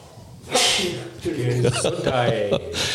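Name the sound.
sneeze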